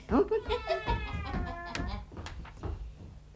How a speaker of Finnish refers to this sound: Kissa, kisu kisu kisu Menes vahtiin sitä ruokaa, kässäät sä ettei se livistä tiehen.